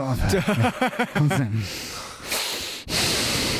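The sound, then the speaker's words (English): A voice imitates the heavy breathing of a very drunk person breathing over a door key while trying to get home: a burst of throaty, voiced mumbling followed by long, loud noisy huffs and snorts of breath. “It's like when you're really, really, really drunk and you're trying to get home, and all you can hear is yourself breathing over your door key.”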